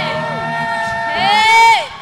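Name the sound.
audience cheering and clapping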